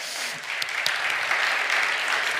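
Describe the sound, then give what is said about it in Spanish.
A crowd claps steadily, applauding for Christ, a dense wash of many hands applauding together, sustained and even in loudness for the whole stretch with no talking over it. “Dale un aplauso a Cristo, amén.”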